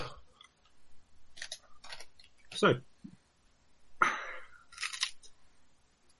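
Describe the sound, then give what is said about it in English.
Someone eats crunchy rice cakes: several sharp, crackly crunches come in irregular bursts with quieter chewing between them, and a voice briefly says a single word. “rice cakes, very healthy. Well, I am still trying to lose a bit of weight, so hence why I'm eating the pretend pizza, not a real one.”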